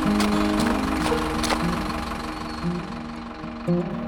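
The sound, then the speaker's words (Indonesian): A bus to Bandung idles with a steady low rumble and rhythmic knocking, punctuated by a few faint clanks and a brief hiss near the end. “Ah, bisku sudah tiba.”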